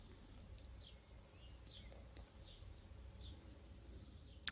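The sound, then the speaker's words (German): Faint bird chirps repeat every second or so over a steady low background hum, with no one speaking; a brief sharp click sounds near the end. “Ähm, vielleicht hast du noch ein paar Vogelgeräusche heute im Hintergrund.”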